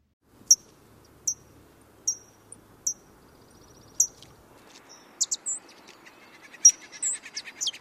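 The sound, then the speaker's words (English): A fox sparrow gives thin, high sip calls, single sharp notes spaced roughly a second apart, later joined by quicker overlapping chirps over a faint, steady outdoor background. “Here is the fox sparrow sip call.”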